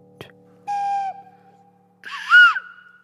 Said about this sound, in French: J'aime le son des poules, du piano. De la flûte.